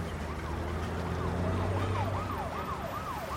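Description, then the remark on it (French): Steady city traffic rumble fills the scene while an emergency siren wails up and down repeatedly, loud, with no voices. “Il y avait de plus en plus de circulation, de klaxons, de bruit.”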